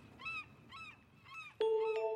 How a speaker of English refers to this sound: The only cries in the air come from seagulls.